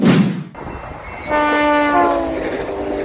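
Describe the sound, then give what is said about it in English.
A commuter train leaving a station in Northwest Indiana rumbles with a hissing burst at the start, then sounds one loud, sustained horn blast lasting over a second as the rolling noise continues. No one speaks. “The train's about to leave the station in Northwest Indiana, and it's a huge deal for Hoosier commuters and businesses.”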